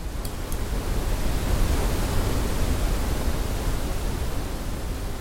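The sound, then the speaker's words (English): A steady, dense roar of rushing water, like a pounding waterfall, holds at a constant loud level throughout with a heavy low rumble and no voices. “retrieving and replacing each stone from the base of a pounding waterfall.”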